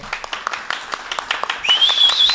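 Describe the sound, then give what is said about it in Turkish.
Audience applause for guest Eser Yenenler: a steady run of crisp, rhythmic claps at moderate loudness, joined midway by a thin, high whistle that slowly rises in pitch over the clapping. “Allah rızası için eser yenenlere kalpten bir alkış.”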